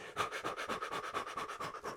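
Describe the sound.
A person pants in quick, shallow breaths, about eight steady puffs in two seconds, with no talking, imitating the rapid breathing women use while giving birth: fast breathing with the top of the lungs.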